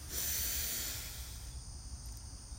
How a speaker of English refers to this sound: And we'll take three deep breaths, but just kind of shake and loosen up a little bit. And we'll breathe in, hold slightly at the top, and then release with a loud, audible sigh. So breathe in